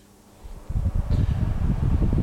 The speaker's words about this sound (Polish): I nie świeci nam wyświetlacz. I sobie wiatrak tak pracuje.